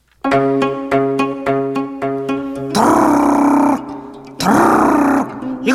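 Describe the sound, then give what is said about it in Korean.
A woman's voice imitates a foot-pedal sewing machine stitching: a quick string of about six rhythmic, throaty voiced pulses, then two longer buzzing, rattling bursts, loud with no other sounds. “그것 입에서 나는 소리가 아니여 손에서 나는 소리여 내 입은 가만히 있자뇨 나오기만 있지 가만히 있어 내가 발끝으로 요래요래 쿵짝쿵짝 눌러주면서 손가락을 휙휙 돌려가면서 박는 재봉틀 소리란 게도르 여기 박고 도르 저기 박고 여기는 후두두두두두 요렇게 하싹다도르 박아불면 옷 백벌은 뚝딱이여”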